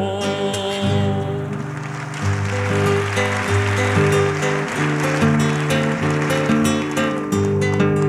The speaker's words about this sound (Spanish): Por el aplauso, mil gracias y vamos a dos razones.